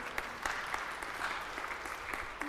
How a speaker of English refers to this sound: Those of you not clapping, you're scaring me, okay?